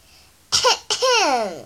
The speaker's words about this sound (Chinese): 小依依清了清嗓子，开始上课啦。